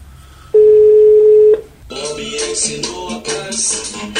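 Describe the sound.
A single steady telephone tone sounds clearly for about a second, like a ring or dial tone on the line, as a call is placed to São Paulo. It then cuts off and voices begin talking.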